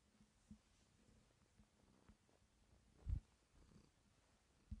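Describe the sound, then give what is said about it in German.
A female cat purrs in a low, steady rhythmic rumble, fairly quiet overall, with a couple of louder soft bumps breaking in near the end. No one speaks. “Hört er sie schnurren?”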